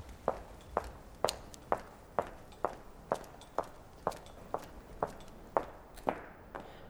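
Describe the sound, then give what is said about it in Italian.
Steady footsteps, about a dozen evenly spaced crisp steps over seven seconds, clear against a quiet, faintly hissing background with no talking, in a deserted, silent Italian city during lockdown. “Potevi sentire gli uccelli ricordarti che iniziava la primavera, potevi sentire anche il rumore dei tuoi passi.”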